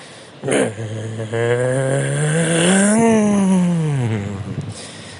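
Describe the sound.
A man's voice imitates a car engine revving on a street in Curitiba, Paraná, a buzzy drone that climbs in pitch, peaks, then winds back down over about four seconds, fairly loud.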